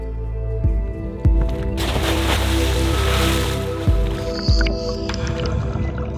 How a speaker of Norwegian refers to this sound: Med en baklengs salto fra ripa på båten forsvinner guiden ned i vannet.